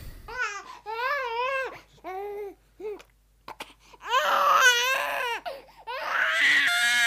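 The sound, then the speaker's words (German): An infant cries loudly in repeated wavering wails with short gasping pauses, building to more intense, strained screams in the second half. “Sie möchten nicht, dass Sie in neun Monaten genau dieses Geräusch jeden Abend ertragen müssen?”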